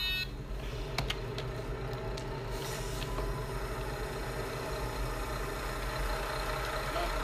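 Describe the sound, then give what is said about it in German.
A bus engine rumbles steadily as the bus keeps rolling with its doors still open, a constant low drone with harmonic hum, joined by a few brief clicks and a faint high tone, with no one speaking. “Und, und, der, und der Bus rollt auch noch weiter.”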